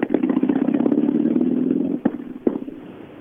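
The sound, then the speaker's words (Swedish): A car engine in a motor racing competition runs roughly for about two seconds, then cuts out and backfires with two sharp, loud pops about half a second apart, with no talking. “det skjuter och smäller överallt.”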